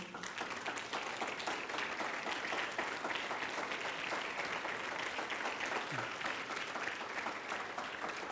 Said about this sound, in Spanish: Pongámonos en pie, por favor, y vamos a darle al Señor otro buen aplauso en esta noche.